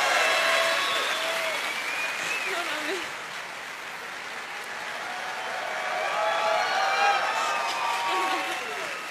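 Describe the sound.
An audience applauds loudly and steadily for about nine seconds, with whistles and scattered cheering voices over the clapping. The applause dips slightly midway, then swells again.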